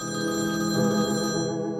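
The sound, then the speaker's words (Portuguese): A telephone on a kitchen counter rings with a steady, bright electronic tone that holds evenly and then cuts off near the end, fairly loud with no voices. “assim que encostou no aparelho, o telefone tocou.”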